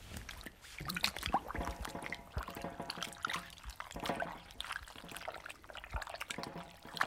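Water sloshes and trickles as pieces of parchment are pushed down and soaked in water in a workshop, a steady splashing and dribbling that runs throughout with no voices.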